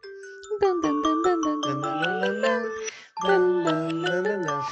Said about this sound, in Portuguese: Esse meme, aliás, é muito bom. Que o, o, o despertador tá tocando e o cara é. tá dançando.